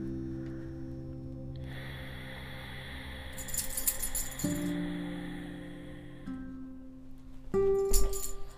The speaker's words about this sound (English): there goes my dog.